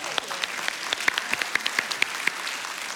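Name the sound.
audience applause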